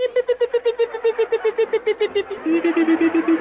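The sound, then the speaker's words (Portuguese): A retro video game sound effect of a raccoon character flying: a rapid, steady stream of buzzy electronic beeps, loud, with the pitch sliding down and dropping a step partway through. “Guaxinim, fica fazendo aquele barulhinho, né? Bi, bi, bi,”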